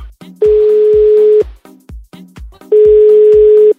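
A telephone line sounds two long, steady one-second tones separated by a quick series of short dialing blips as another phone number is dialed, loud with no talking.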